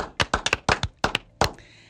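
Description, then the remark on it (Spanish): Brief applause made of a handful of sharp, separate hand claps, about nine in an uneven rhythm, fairly loud and with no voices over them, given in tribute to the National Army on the eve of National Army Day. “Vamos a darle un fuerte aplauso, señores, al Ejército Nacional.”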